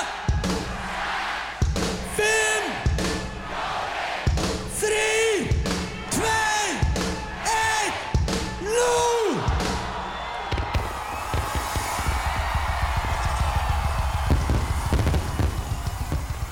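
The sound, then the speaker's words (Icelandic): A crowd shouts a loud, rhythmic countdown from ten in unison, then the Orkuveita's fireworks display at Culture Night (Menningarnótt) erupts into steady crackling and popping bursts over the crowd's continuous cheering. “þá var fýrað í stórkostleiri flugveldarsýningu orkuveitunar við gríðanlega ánægju gæsta menninganætur eins og verður í ár.”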